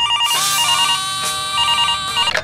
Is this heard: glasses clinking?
no